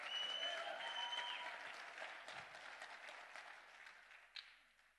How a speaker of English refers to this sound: Clap your hands better than that.